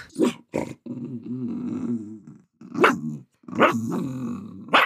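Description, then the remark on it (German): Two dogs growl and bark: a long, low rumbling growl is broken up by several sharp, loud barks at the start and a cluster of barks near the end, with no talking. “Sagt mal beide Hallo.”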